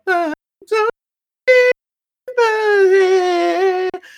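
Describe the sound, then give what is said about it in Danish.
A high-pitched voice wails in short bursts that cut off abruptly into dead silence as the microphone's filtering cuts the voice out, then holds one long, loud sustained note. “du skal gøre et eller andet med din mikrofon, så den ikke highpasser, så den ikke sådan cutter dig ud”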